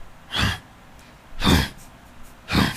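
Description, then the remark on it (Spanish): A voice imitates three effortful grunts that a man used to make, evenly spaced about a second apart, like someone straining through exercise reps. Each is a short, breathy, forceful exhale, fairly loud, with quiet pauses between. “Ese güey nomás hacía ese ruido así como que se estuviera haciendo ejercicio, pero.”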